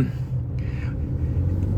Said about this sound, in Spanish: ya tengo el coche, ya voy en mi coche, lo, recogí el viernes al salir de trabajar, ningún problema en cuanto a la revisión, es decir, no ha salido nada raro y demás.